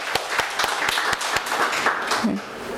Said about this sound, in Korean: 여름 잘 보내시도록 우리 박수 한번 격려해 주시면 좋겠습니다. 음. 우리 옆에 계신 분도 여름에 수고 많다고 격려한 박수합니다.